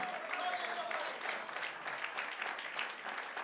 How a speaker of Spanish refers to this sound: Bendito sea el nombre del Señor. Vamos, aplauda fuerte al Rey de Reyes, Señor de Señor.